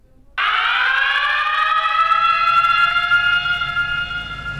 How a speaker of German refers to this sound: There are three different types of alarm that are used in emergencies. The local plant alarm sounds like this.